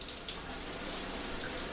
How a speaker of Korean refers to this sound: 여희는 아무 생각 없이 샤워기의 물줄기에 몸을 맡긴다.